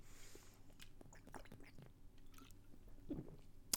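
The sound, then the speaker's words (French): Someone takes a sip of Corona beer: soft wet mouth clicks and a gulp over a few seconds, quiet overall, ending with a sharper click. “Et là, je bois une gorgée de Corona.”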